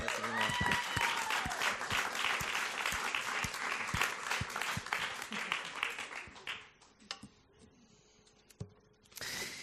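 Audience applause rises into dense, sustained clapping for several seconds, then thins out and fades to a few scattered claps before a brief burst of noise at the end.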